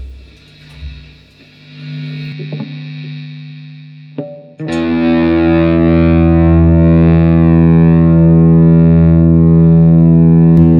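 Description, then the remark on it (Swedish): Electric guitar played through a Black Bender fuzz pedal: a few quieter distorted notes and buzzing hum, then at about four seconds a loud, thick sustained chord rings out with dense, gritty harmonics that hold steady to the end. “Vad har vi för pedal nu? Oj, vilket härligt brus.”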